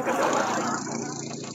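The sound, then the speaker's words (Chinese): A motorcycle being ridden, its engine running steadily, a loud, continuous rumbling drone with a rough, throbbing texture that eases off slightly toward the end. “车车，你在骑摩托车吗？”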